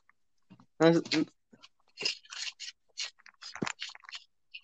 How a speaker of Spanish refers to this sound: ¿Estás comiendo algo? Una barrita. Es que se escucha la envoltura ahí.